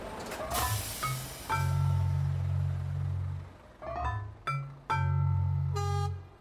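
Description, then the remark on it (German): Diesel trucks of various makes drive through a port, their loud, deep engine drone swelling and fading, broken by several short, sharp tonal toots and hissing bursts. “Da fahren Trucks diverser Hersteller, wie eh und je mit Diesel.”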